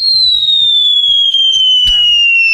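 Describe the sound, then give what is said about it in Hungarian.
A loud, high whistle slides steadily downward for over two seconds before a sharp explosive burst cracks in near the end, with soft low thuds pattering underneath and no voices. “azt, azt hittem nem lesz robbanás a végén.”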